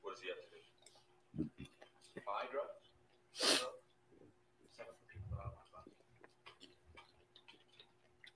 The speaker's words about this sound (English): I like to put um, Tony Chachere's on my popcorn and I got pepper in it. So it keep getting in my nose and I keep sneezing.